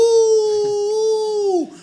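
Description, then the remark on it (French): A person imitates a dog's howl: one long, steady 'ouh' held at a fairly high pitch, loud and alone, sliding down sharply at the very end. “Le match continue, 25e minute, deuxième but pour l'OM, silence de cathédrale dans le stade, et le chien qui se met à hurler plus fort encore, ouh”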